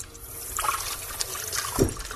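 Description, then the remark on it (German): Drops of Maggi liquid seasoning drip and trickle into a pot of lentil soup with onions, bacon, potatoes and broth, with a few small splashes over a soft, steady wash of liquid sound and no talking. “So, ich mache das gerne mit dem Tropfen Maggi.”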